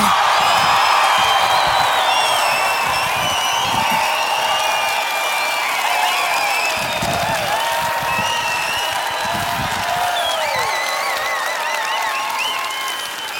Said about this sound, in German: Na geht doch! Das nenne ich mal einen Applaus.